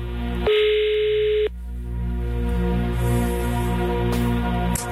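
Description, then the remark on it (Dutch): A telephone line tone as someone phones a person: a steady, loud beep lasting about a second, then a low background hum and a short click near the end. No one speaks. “misschien moet je weer even bellen om te kijken waar die vandaag uithangt”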